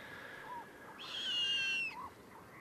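An owl gives a harsh, drawn-out screeching call lasting nearly a second, with shorter, fainter calls just before and after it, over quiet background hiss and no talking.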